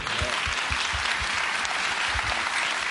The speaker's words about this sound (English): So I don't, I don't want to move past that without showing you guys honor uh, that you deserve and that, that God gets the glory for. So I don't know, is it okay if I just ask you guys to honor them with me with just a hand clap? Is that okay?